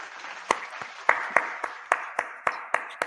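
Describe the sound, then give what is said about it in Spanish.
Applause from a small group for the project Malviajados: sharp, crisp claps land in a loose, fairly steady rhythm over a soft wash of scattered clapping, lasting a few seconds with no talking. “Y desde luego, Malviajados, otro proyecto al cual le tengo muchísimo cariño, para el cual vamos a dar un fuerte aplauso.”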